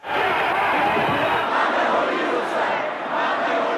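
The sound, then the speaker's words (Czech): A large crowd of student marchers roars and shouts continuously, a dense wall of many voices yelling together, loud and sustained with no pauses, as the crowd runs into the first cordon of riot police near the botanical garden, where the first clashes with the National Security Corps took place. “Jenže zhruba po 20 minutách naráží dav u botanické zahrady na první kordon pořádkových jednotek.”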